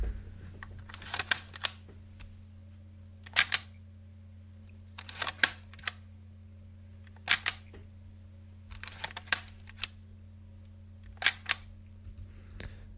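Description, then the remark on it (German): A vintage Krügener Frankfurt Model Delta folding plate camera is worked by hand: a series of sharp mechanical clicks and snaps in small bursts, over a steady low hum with no talking. “Es handelt sich dabei um eine Krügener Frankfurt Modell Delta.”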